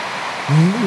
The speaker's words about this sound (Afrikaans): Dit mag dalk wees dat die Here dit op jou hart druk vanoggend en laat die harde reën vir jou net 'n reminder wees daarvan.